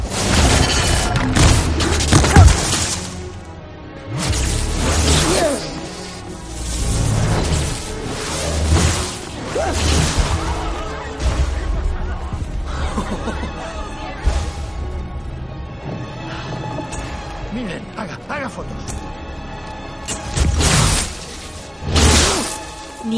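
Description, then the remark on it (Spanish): A rapid series of loud magical blasts from Graves's wand striking Newt and keeping him from getting up: whooshing bursts and heavy booms crash one after another with barely a pause, building into a dense, chaotic barrage. “recibe los disparos de la varita de Graves que no le dejan levantarse.”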